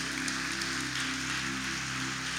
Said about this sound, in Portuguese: Pode aplaudir a Jesus